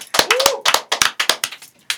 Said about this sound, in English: Clap it up for my nigga right now. Clap it up for my nigga.